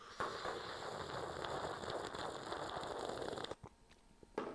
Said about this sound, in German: Achtung, dramatischer äh, Zug aus der Kaffeetasse, Achtung,